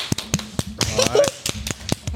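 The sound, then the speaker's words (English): A short burst of hand clapping: about a dozen sharp, fairly loud claps in a quick, steady rhythm, with a brief voice rising over them partway through. “I give her a clap hat.”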